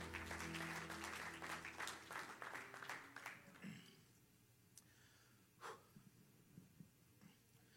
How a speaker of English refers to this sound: Everybody say, In Jesus' name, amen. Clap unto the Lord as you're seated.